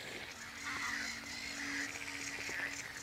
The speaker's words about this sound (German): Also im Moment sind es vor allem die Möwen und die Seeschwalben, die das Geschrei machen, das sind Lachmöwen vor allem. Ne?